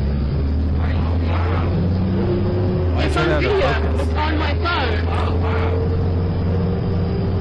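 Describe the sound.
A steady, low bus engine rumble drones without a break beneath a person talking excitedly, the deep hum holding even from start to finish.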